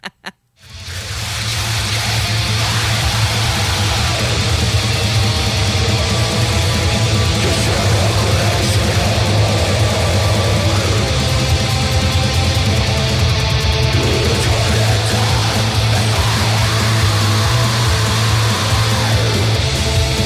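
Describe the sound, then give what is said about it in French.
A loud, dense band track with drums and vocals plays continuously, thick and distorted with a heavy low end, filling the whole stretch without any talking over it. “Oui, bien, suite au drum, on le sait que le drummer, il fait comme pouit, pouit, pouit, Très, très cool.”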